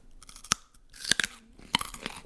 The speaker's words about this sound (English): what you're about to hear is ASMR carrots.